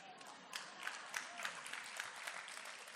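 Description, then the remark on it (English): An audience claps steadily, a dense patter of many hands with a few louder individual claps poking out, sustained for the full few seconds with a faint crowd murmur underneath. The audience claps in response to a mention of loving 90s hip hop. “These all the, everybody that's clapping just exposed their age right there.”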